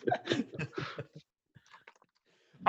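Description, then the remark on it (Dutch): Wet chewing and gnawing sounds as someone eats chili baby ribs straight off the bone, in quick uneven bursts, then a pause with a few small smacks and clicks, ending in a sudden loud mouthful. “Meat straight off the bone. Chili, baby ribs.”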